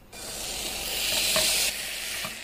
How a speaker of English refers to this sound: And we need to hear the sizzle when we put it onto the pan. If you don't hear the sizzle, not committed to the moment, you can stop and take it back off again.